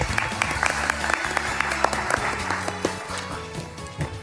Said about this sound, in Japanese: 皆様大きな拍手お願いします